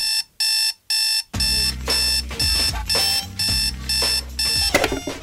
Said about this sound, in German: Und dann ist es auch schon wieder soweit. Der Tag tagt, und der Wecker brüllt.